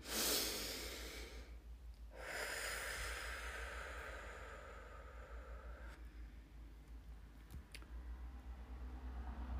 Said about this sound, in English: take a deep breath in through your nose and out through your mouth and just feel it feel it within your body